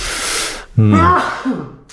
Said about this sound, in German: Gesundheit. Entschuldigung allergisch gegen Titelmelodien aus den 80ern.